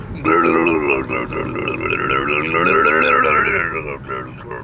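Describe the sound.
A person vocally imitates a car engine being revved after it is turned on, sounding like gargling mouthwash, with a loud, continuous gargling rumble sustained for several seconds with slight wavering pitch.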